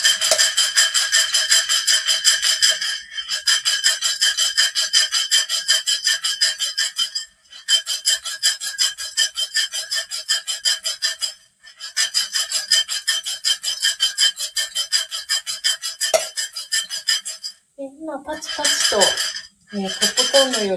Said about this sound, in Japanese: 弾ける音が聞こえてきてるかと思うんですが、これが、えっ、ー、と、一ハゼと言われる音です。で、だんだんと、このパチパチという感覚が短くなっていきます。